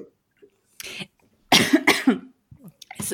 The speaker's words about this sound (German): Hast du dich verschluckt?